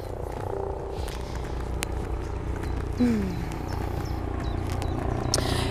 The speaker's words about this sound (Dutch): En ik hoor een. Ik weet niet of jij dat ook hoort. Een helikopter. Die is nu wat verder weg. Ik hoor dat later wel terug, of dat ook zo luid is.